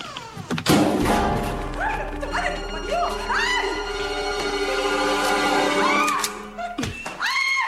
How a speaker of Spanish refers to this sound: El médico golpea a la gente y lo tira al suelo.